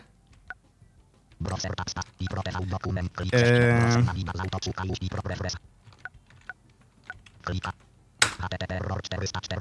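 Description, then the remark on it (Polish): Scattered clicks of computer keyboard typing, a few sharp taps including an Enter key press while navigating a list of files, with people talking over and between them. “więc mogę sobie na przykład kliknąć to Enter.”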